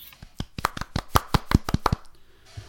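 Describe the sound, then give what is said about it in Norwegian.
A brief patter of hand clapping from just a few people, about a dozen sharp, uneven claps over two seconds, applauding footballers Guro Reiten and Maren Mjelde being named to the year's team in England, then it quickly stops. “Det syns jeg fortjener en liten applaus fra alle sammen.”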